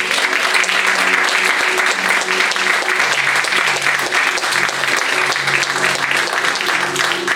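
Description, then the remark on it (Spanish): Loud, sustained applause fills the whole clip, a dense crackle of many hands clapping at a steady intensity, with faint voices mixed in underneath. “Podrás regalarle un aplauso fuerte, Señor.”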